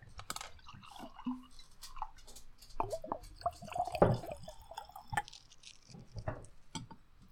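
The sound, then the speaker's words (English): Scotch being poured into a glass, with irregular drips, small splashes and light glassy clinks over several seconds, fairly quiet and with no one talking. “Uh, and we pour the scotch and right. drink the glasses.”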